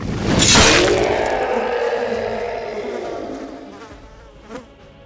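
A dense cloud of flying monsters buzzes loudly as it swarms around a creature, a thick droning hum that swells sharply at first and then slowly fades, with a brief sharp crack near the end.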